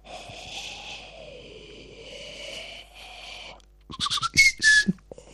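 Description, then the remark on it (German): A person whistles a long, wavering tone that slowly rises and dips, a playful imitation of flowers growing, followed by a few short breathy puffs and squeaky bursts. “Und äh, dieses, dieses Blumenwachsgeräusch, das ist eher so, so.”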